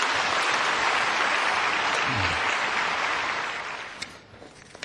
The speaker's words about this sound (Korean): 우리 박수로 한번 더 격려하시겠습니다.